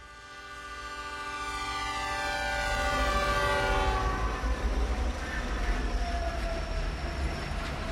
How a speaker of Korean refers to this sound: 나는 다시 기차에 오른다. 나를 스위스 밖으로 실어다 줄 기차다.